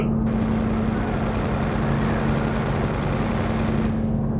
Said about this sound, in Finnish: Mitä se oli? Joku ampuu meitä! Kuulitteko? Joku ampuu meitä!